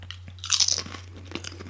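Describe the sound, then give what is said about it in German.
Crunching of potato chips that taste like pizza, a burst of crisp, bright cracks followed by a few softer chewing crunches, with a steady low electrical hum underneath. “Ja, wenn du halt einmal angefangen hast, ey. Bei, bei Chips, weiß, ja, wir können jetzt, dann müssen wir wegstellen,”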